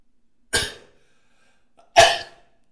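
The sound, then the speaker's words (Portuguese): Two sharp bursts about a second and a half apart: a cough, then a stifled, sneeze-like burst, with near silence between and around them and no talking. “Vê que até me dá uma vontade de espirrar”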